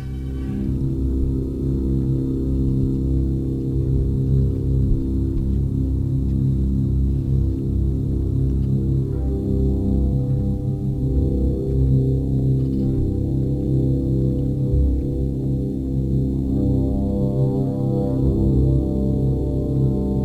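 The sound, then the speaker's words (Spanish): A slow orchestral passage from the tone poem Death and Transfiguration, the moment of the character's transfiguration, as if slowly awakening from death. Sustained, dark low chords swell steadily, and the harmonies shift gradually. A faint upward-moving line emerges near the end. No voices. “compuso una obra que se llama Muerte y Transfiguración, donde tiene ese momento en el que el personaje se transfigura Vamos a escuchar cómo empieza ese momento de ir poco a poco como despertando de la muerte.”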